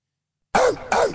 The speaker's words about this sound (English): Playing the dog sound effect because this is at plus one fifty six.